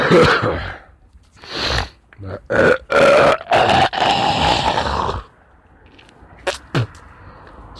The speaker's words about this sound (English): guys, that I'm coughing up snot. So I hope you won't be offended.